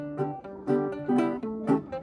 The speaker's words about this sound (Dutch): Dus ieder jaar op die camping kwamen ze dan bij elkaar om een weekend lang ukulele te spelen.